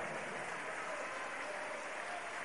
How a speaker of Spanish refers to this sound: Dale fuerte las palmas al que vive.